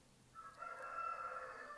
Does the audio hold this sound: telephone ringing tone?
no